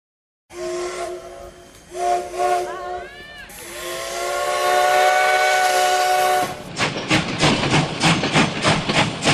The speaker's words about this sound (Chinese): 我是一部黑头子蒸汽火车，故乡在遥远的日本。年轻的时候就漂洋过海被运到台湾。我的任务是每天在集集线铁路上载运香蕉、稻米、木材和来来往往的旅客。